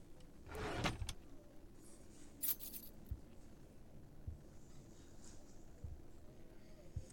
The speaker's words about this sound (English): Why does getting a key make so much noise?